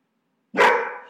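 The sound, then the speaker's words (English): Zeus, a guard dog, lets out a single loud bark at a person just arriving home, after a moment of silence, the sharp, harsh sound ringing briefly before fading. No one is talking. “Zeus, our guard dog, uh, tried to attack her.”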